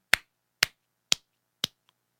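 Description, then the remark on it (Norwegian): Four sharp hand claps at a steady, even pace, about half a second apart, crisp, used as a 'clap test' to imitate cow dung slapping onto a barn floor and show its consistency. “vi har jo klappetesten. Den egner seg for podkast. Ja, hvis vi tenker når vi hører i fjoset at kyrne skiter, så skal det ikke være sånn her.”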